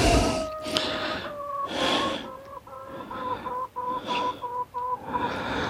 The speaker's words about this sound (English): Let's let these chickens out, let's get them.